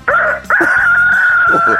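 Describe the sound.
A person imitates a rooster crowing in a voice-impression contest on Park Myung-soo's radio show: a short opening note, then one long, loud, sustained strained cry held for over a second, with no other talk.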